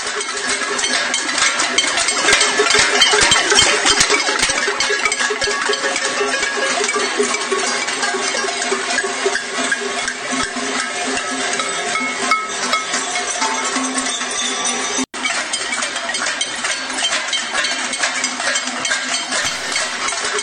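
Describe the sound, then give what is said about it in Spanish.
A loud, dense din of many cowbells clanging at once at a protest, a continuous chaotic metallic jangle from a large crowd that barely lets up across the whole stretch, with no voices standing out. “suenan, suenan con fuerza las cacerolas, eh, los eh, cencerros, suenan con fuerza.”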